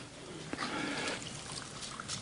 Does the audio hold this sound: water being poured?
yes